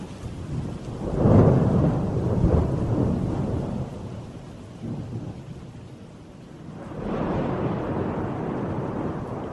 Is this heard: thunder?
yes